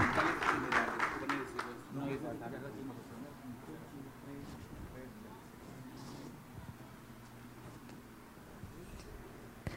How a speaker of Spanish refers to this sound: Fuerte los aplausos.